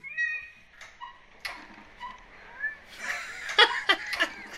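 A cat with its claw stuck in a ceiling fan, in a video, meows several times in strained, drawn-out cries, then a busier stretch of louder yowls mixed with sharp clicking bursts near the end. No one speaks.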